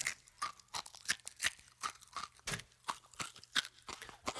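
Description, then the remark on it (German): Crisp crunching as scrambled eggs with bits of eggshell in them are chewed, about a dozen sharp bites in an irregular rhythm with brief pauses between, no voices present. “Kannst du mal sehen, die Schale in dem Rührei, die knuspern so schön.”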